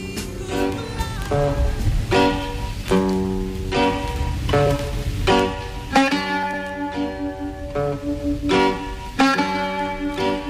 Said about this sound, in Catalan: Això és el sirtaki. Si heu anat a algun restaurant grec eh, d'aquests que hi ha per tot arreu, et trenquen els plats i et fan ballar el sirtaki.